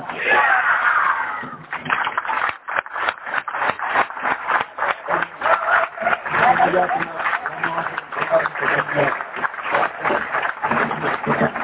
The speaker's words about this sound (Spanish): Muchas gracias por estos aplausos que yo considero inmerecidos.